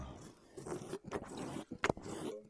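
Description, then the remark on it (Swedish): Crackly crunching of potato chips being chewed, a run of dry, irregular bites and scrapes with one sharp louder crackle near the end, as someone eats chips with beer; no talking. “Nu borde man ta chips och öl här. Nu tar jag chips. Och öl.”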